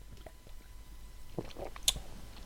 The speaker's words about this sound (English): I'm just going to grab a quick drink first sitting here sipping on my mineral water, Capi.